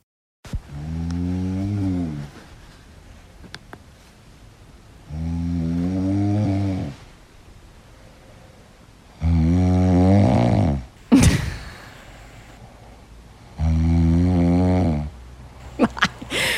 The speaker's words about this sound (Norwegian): jeg hører jo at det er snorking